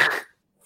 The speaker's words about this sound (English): Oh. You have to sneeze.